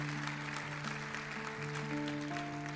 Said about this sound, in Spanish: Dale un aplauso al Señor.